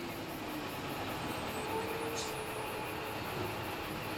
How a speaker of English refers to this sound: a convoy of huge tanker trucks grinds to a stop